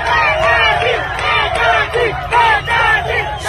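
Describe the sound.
A loud crowd shouts and chants together in repeated rhythmic bursts, many voices overlapping over a steady low rumble of commotion.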